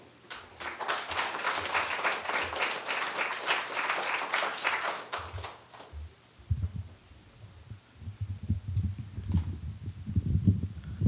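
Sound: audience applause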